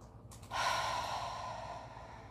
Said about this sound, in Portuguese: Um, dois, três, quatro. Segura. Inspira novamente. Um, dois, três, quatro. Segura e solta de novo.